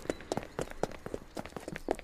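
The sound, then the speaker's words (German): Several guards run quickly past after a wagon, their rapid footsteps thudding in an overlapping, uneven rhythm, fairly loud with no talking. “Die Wachen schauen hoch und jetzt rennen sie dem Wagen hinterher.”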